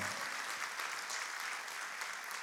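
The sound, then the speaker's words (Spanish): A church audience claps for itself for attending the service, a dense wash of many hands applauding at an even volume from start to finish, with no voices standing out. “¿Por qué no se da un aplauso a usted?”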